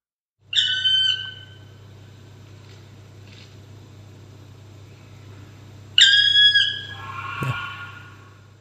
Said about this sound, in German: Also der Schwarzspecht ist der Vogel des Jahres Ach, 1981 gewesen. Ähm, da schon mal als Vorab-Info. Ja, ich, ich habe, äh, wenn ich das hinkriege, kommt hier jetzt wieder der Sound